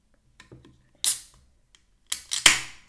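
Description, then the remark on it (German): A can of blueberry-flavoured Dirty iced tea being opened: a few soft clicks, a sharp metallic snap, then another crack followed by a brief fizzing hiss that fades out. No one speaks. “Ich mache mal den Dirty auf.”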